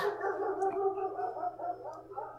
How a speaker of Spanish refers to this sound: Perros, nuevamente. Parece que nos van a, nos van a acompañar a lo largo de varios episodios, ¿no?